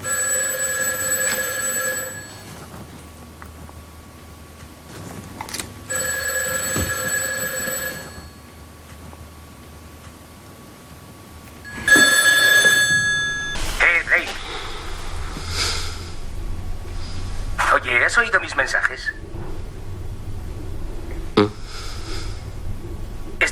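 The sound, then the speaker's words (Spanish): A telephone rings three times, each trill a couple of seconds long with pauses between, fairly loud, followed by indistinct voices and background noise. “Verás, es que llamo, llamo y llamo y por fin te pones tú y ni siquiera me dices nada, tronco.”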